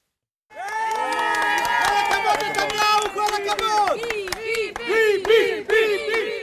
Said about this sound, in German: Begeistert applaudieren Einwohner von Süd Tel Aviv ihrem Premierminister. Benjamin Netanyahu war gekommen, um ihre Sorgen zu hören, und er hatte die Botschaft dabei, die sie von ihm erwarteten.